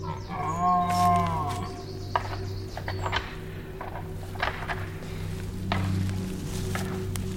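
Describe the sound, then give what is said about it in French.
A person imitates a red deer stag's bellow: one drawn-out, low, moaning roar with a wavering pitch near the start, followed by quieter rustling and a steady low hum. “Qu'est-ce que vous lui disiez au cerf précisément quand vous bramez Quel est le message envoyé”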